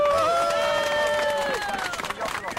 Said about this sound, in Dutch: Hier, applaus.